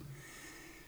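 A large dog snoring: a single low, rasping snort, soft and close, with no voices around it.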